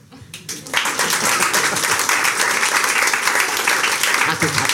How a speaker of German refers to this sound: Applaus.